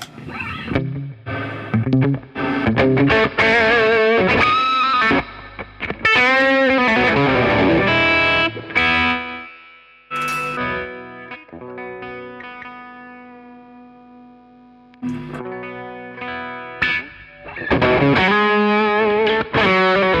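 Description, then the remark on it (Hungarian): Electric guitar played alone through an OD-1 overdrive pedal, with gritty distorted chords and riffs, a sustained note ringing out and decaying in the middle before the playing picks up again. “Már csak, nézzük meg az OD1-et, az, az elfben.”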